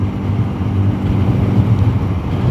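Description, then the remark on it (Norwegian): A motorcycle engine drones steadily at a low pitch while heavy wind buffeting roars over it, loud and continuous throughout, with no voices. “Ja, ja, jeg har motorsykkel.”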